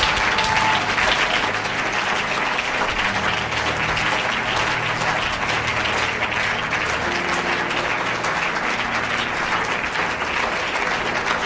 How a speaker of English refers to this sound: Release a prophetic clap right now.